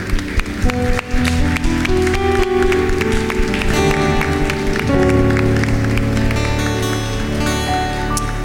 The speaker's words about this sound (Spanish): Dar un aplauso después de esta oración.